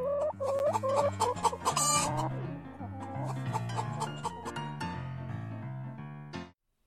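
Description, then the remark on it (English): Hens used for chicken shit bingo cluck in quick, bobbing bursts over a steady musical backing with a plodding bass line, fairly loud, before everything cuts off abruptly. “She has three hens to choose among Loretta Lynn, Dolly Parton, and Patsy Cline.”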